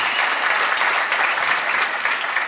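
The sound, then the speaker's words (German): An audience claps for Willy Wimmer, a dense, sustained wash of many hands with no pauses, loud and even throughout, with no one speaking. “ja, Applaus für Willy Wimmer”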